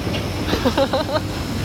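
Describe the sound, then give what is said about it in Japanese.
A train rumbles by on elevated tracks, recorded directly beneath the rails, a steady, loud low roar filling the whole moment, with a few brief higher tones rising above the din in the middle. “どう通り過ぎるのを待とうかしらちょうどね電車のレールの真下で撮っております環境音ということでお許しください”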